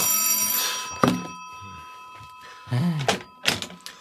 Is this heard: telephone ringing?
yes